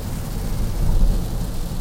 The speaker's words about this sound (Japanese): 今タンポポに向かっている車中で、えー、いつものごとくラジオを撮っているわけなんですけどもちょっと雨の音がこのマイクを通じて入ってしまわないかと、えー、心配になるぐらいの大雨が今降っておりまして大丈夫かなちゃんと聞こえてるかなといった感じになってるんですけれども